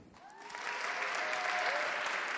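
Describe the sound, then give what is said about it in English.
A crowd breaks into sustained applause welcoming a guest, swelling in the first half-second and then holding steady as a dense wash of clapping, with a few faint voices or whoops rising above it. “please give a really, really warm welcome to Lisa Samuelson”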